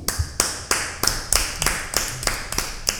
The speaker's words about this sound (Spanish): No, pero aplaudiste con fuerza, aplaudiste con fuerza. con voluntad.